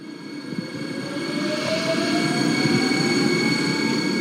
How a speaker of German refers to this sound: So klingt die Zukunft auf den Taunusstrecken im Rhein-Main-Verkehrsverbund RMV. 27 Nahverkehrszüge mit Wasserstoff angetrieben und bis zu 140 Stundenkilometer schnell.